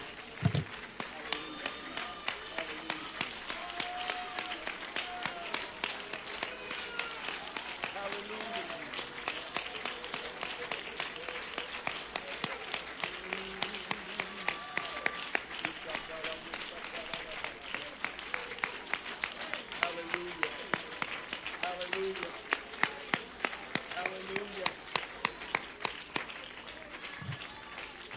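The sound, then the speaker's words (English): A church audience claps steadily in praise to God for the whole stretch, dense overlapping hand claps forming a continuous roar of applause, with scattered voices and cheers rising through it. “Every hand clap, every hallelujah, every amen,”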